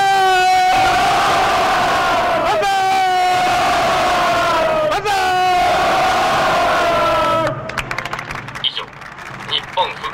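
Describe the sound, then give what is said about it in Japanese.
A crowd in Naze, Amami Ōshima, Ōshima District, Kagoshima Prefecture, Japan, shouts banzai in celebration in unison three times, each long, loud cheer rising at the start and holding steady, before the voices break off into scattered murmuring and chatter. “の喜びに沸く奄美大島なぜ市からお伝えいたしました”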